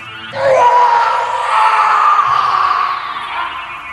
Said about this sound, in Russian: Вдруг тишину ночи прорезал ужасный хриплый крик, которого я не слышал никогда в жизни.